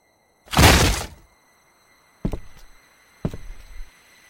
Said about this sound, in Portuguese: até que seus pensamentos foram atrapalhados por um grandíssimo estrondo de uma porta sendo arrombada.